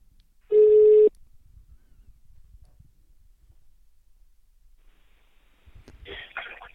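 A single loud, steady telephone ring tone sounds for about half a second, followed by a long hush, then a brief crackly burst as the line seems to connect.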